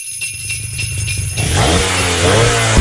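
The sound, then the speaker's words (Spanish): An engine cranks over with a low, pulsing rumble, then catches and roars into a loud rev, its pitch climbing and staying strong to the end. Prominent, with no talking. “Enciende los motores porque esta Navidad te vas a montar y a equipar tu casa con Pinturas Domastur.”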